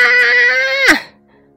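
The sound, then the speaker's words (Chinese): A single loud, sustained high-pitched wail that holds steady, then slides sharply downward and cuts off, a voice imitating the cry of a baby Maiasaura. “听到宝宝的哭声，慈母龙妈妈再也忍不住了。”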